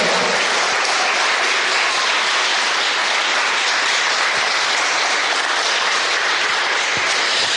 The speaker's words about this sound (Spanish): Órale un aplauso a aquel que nos hace libres en su bendita presencia.